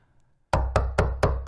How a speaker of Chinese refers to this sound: 刚才的孩子哭，女人哭，现在声音也已经没有了，就是一帮人在那儿乱敲门。